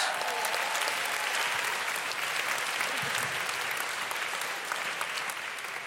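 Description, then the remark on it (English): Sustained applause from an audience for the speakers, a dense, steady wash of many hands clapping at an even loudness for the full length, with no break or talking over it. “And uh, one more round of applause for our speakers”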